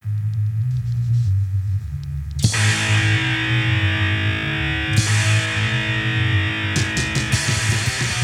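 A loud, distorted band recording played in a music guessing game blares with heavy low-end riffing and a dense wash of crashing cymbals kicking in after a quieter opening, no voices over it.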